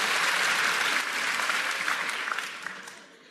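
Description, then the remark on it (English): An audience claps steadily in a dense, crackling wash of applause that holds strong for a couple of seconds, then thins out and fades as individual claps trail off. “Uh, don't clap yet.”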